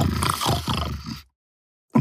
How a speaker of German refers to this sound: Annie beugt sich hinunter und streicht sanft über die Wange des Wildschweins. Das Wildschwein grunzt einmal kräftig